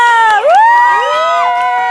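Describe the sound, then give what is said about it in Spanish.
A loud audience cheers and whoops as guests Shanique Aspe and Sherlyn are introduced, with high, sliding voices rising over one another. A few scattered claps come through underneath for about two seconds. “Con ustedes, el día de hoy, Shanique Aspe y Sherlyn, un aplauso.”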